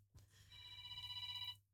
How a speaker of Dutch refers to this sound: Oh, dan gaat mijn telefoon ook nog. Jongen, jongen.